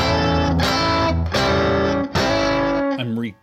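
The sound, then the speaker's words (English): A loud, heavily distorted electric guitar plays a short hammer-on lick, picked down, up, down, then three sustained ringing phrases in a row, then a quick fluttering run of notes that cuts off at the end. “When you're doing this hammer on,”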